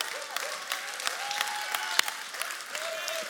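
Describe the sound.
A church audience in Nuremberg claps steadily for its campus pastor's birthday, dense applause with a few sharper claps standing out, while some voices murmur faintly underneath.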